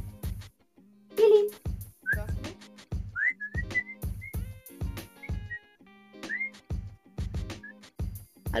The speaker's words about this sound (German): Habt ihr eine Katze? Habt ihr eine Katze? Nee, Hund, weißt du doch. Ich dachte, man pfeift nur bei Katze.